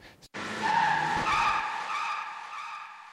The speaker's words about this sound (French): C'était un accident de voiture, je l'ai pris, je l'ai retravaillé et tout. Et je trouvais ça apportait un truc à la prod en fait.